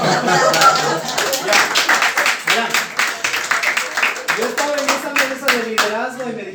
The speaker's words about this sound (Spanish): Ese es un aplauso.